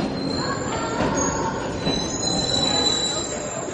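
Metro train wheels squeal with sustained high-pitched screeches over a loud, steady rumble of rolling carriages in a metro station, continuous throughout.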